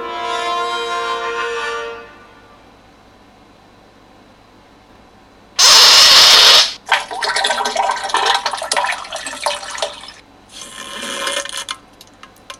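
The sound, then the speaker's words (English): A voice imitates water splashing in a toilet bowl as a man uses the toilet: a brief tonal hum, a pause, then a sudden loud spluttering burst followed by several wet, crackling, noisy bursts, fairly loud. “Meanwhile, this is the sound of what was going on in the toilet.”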